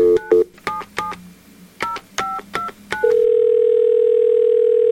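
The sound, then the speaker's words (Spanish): A rapid series of short touch-tone beeps as a telephone number is dialed to place a call, followed by a steady, continuous ringing tone that holds until the end. No voices. “vamos a llamar a la rata inmunda para que busque la historia, ¿ok? Por teléfono”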